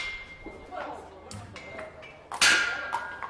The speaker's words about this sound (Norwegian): klipser av festa til hesten.